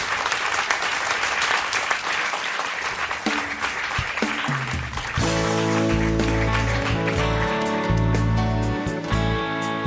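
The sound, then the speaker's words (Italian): A live audience breaks into dense, sustained applause, a steady wash of many hands clapping, welcoming a performer as he goes to the piano; about halfway through, music with held notes starts playing beneath the continuing clapping. “ti accogliamo con una fa- riempiremo questo vuoto con un applauso vero del gentile pubblico intervenuto.”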